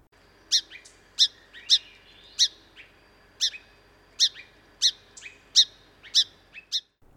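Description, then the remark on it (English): A song sparrow gives a series of about ten sharp, high chirping calls, spaced somewhat irregularly about a second apart, clear against a quiet background with no talking. “They do give other vocalizations other than just singing, um, especially between mated pairs. There are a lot of chirping calls given.”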